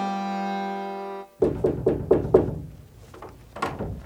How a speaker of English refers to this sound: Finally, he decided to knock at a cottage door and inquire as to where they all were.